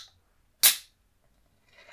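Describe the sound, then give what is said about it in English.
A drink can is cracked open: one sharp, bright pop that fades over a fraction of a second. A soft hiss of fizz rises at the end. No one speaks. “I'll crack this one.”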